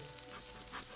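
Duck legs sizzle in a thin layer of fat, a steady, bright crackling hiss that holds evenly through the whole second with no voices over it.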